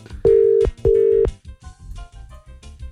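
A telephone ringback tone sounds twice, two steady electronic beeps of about half a second each, loud and clear, followed by faint background music, as a wake-up call is placed to a colleague.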